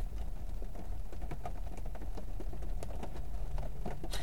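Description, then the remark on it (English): Steady rain patters on a parked car, heard from inside: a dense, continuous drumming of drops with occasional sharper, louder taps and a low rumbling hum underneath. No one speaks. “Can you hear the rain? I might just record a bit of this and do one of them MSMR videos. Sat in the car while raining.”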